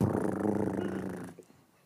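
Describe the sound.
A loud voice makes a throaty, rolling rumble imitating a drumroll for a prize draw, sounding rather like a seal, held steadily for over a second before breaking off abruptly into quiet.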